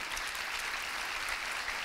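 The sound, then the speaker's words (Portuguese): Steady audience applause during preaching, given as glory to God, a dense wash of many hands clapping at an even level throughout, with no voices rising above it. “Quer aplaudir? Pode aplaudir, sim.”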